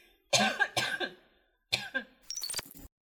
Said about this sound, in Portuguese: eu tomei coisa com gás. Enfim. Eu tossi.